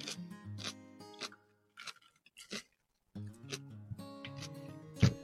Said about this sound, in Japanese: こういう咀嚼音もね聞いたら心地よいなって感じる人間の癖が癖があるんですね